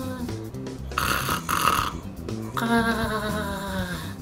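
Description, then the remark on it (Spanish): A voice imitates eerie, ghost-like snoring: a few drawn-out, breathy rasping snores in a steady rhythm, fairly loud, with no other speech. “Están desde los ronquidos de fantasma.”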